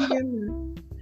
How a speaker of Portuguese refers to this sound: Minha mãe teve bebê sábado, então se apareceu oh, um chorinho. Parabéns! é do bebê. Então, que barulho é esse? É o bebezinho chorando, tá?